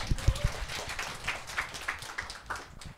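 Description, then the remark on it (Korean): An audience breaks into steady applause, many hands clapping in a dense, crackling patter that holds for a few seconds, with a few heavier thumps at the start and no voices on top. “네 박수 부탁드릴게요”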